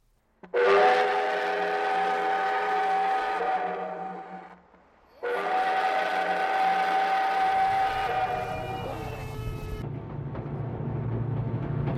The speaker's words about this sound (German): 네, 이제 출발했는데요. 기차가 막 움직이고 있어요. Der Dampfzug kommt nach heutigem Standard nur langsam voran. Seine Höchstgeschwindigkeit liegt bei gerade mal 30 Kilometer pro Stunde.